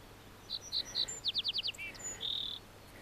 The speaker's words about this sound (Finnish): Pikkusirkon laulu ei ole ihan helpoimpia oppia tuntemaan. Osa pikkusirkoista laulaa jotenkin epämääräisen huolimattomasti, niin ettei niihin välttämättä kokematon lintuharrastaja osaa kiinnittää huomiota.